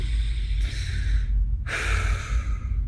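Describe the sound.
A person breathes rapidly and audibly, two quick, breathy pulls and pushes of air with a brief pause between them and no talking, demonstrating quick, uncontrolled breathing.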